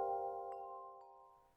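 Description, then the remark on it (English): A Woodstock Chimes wind chime ringing with several overlapping metallic tones that hum and slowly fade, with a couple of soft extra strikes partway through and no voices. “Woodstock Chimes, the world's favorite wind chime.”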